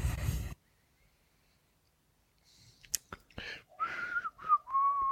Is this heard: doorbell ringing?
no